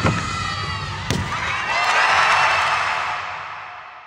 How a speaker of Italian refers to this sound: Quest'ultima folla che grida ha visto lo Yurchenko che a Tokyo non ci fu. È successo ai campionati americani nell'estate del 2023.